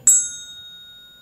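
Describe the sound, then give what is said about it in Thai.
A single bell is struck once with a bright, clear ding, then its metallic tone hangs in the air and slowly fades, still ringing softly at the end. No voices. “ตึกตึกตึกมันจะอยู่แค่นั้น เหมือนเคาะระฆังเนี่ยมันจะอยู่แค่นี้ใช่ไหม”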